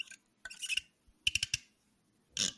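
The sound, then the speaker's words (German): The plastic cap of a Mack drinking bottle of Aqua Mineral water is twisted open and then screwed shut, giving short bursts of crackly, ratcheting clicks, with brief pauses between the turns. “Das ist Aufdrehen und das ist Zudrehen.”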